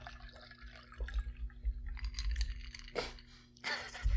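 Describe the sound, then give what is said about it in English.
A cocktail drips and trickles from a shaker into a previously used glass, with small wet splashes and handling noise, then a couple of louder splashy bursts near the end over a low background rumble. “cleverly using the previous glasses to catch the the drip off the off the uh, shaking glass to.”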